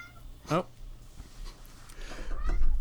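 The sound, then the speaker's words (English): A single short, high meow, made by a person imitating a cat as a sound effect, rings out clearly, then gives way to quiet room noise and faint murmuring. “Get that cat out of here, please.”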